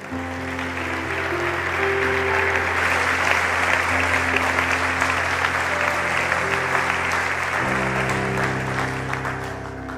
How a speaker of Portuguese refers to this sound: Vamos dar um aplauso ao Senhor por Sua palavra?